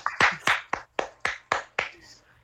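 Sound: one person clapping hands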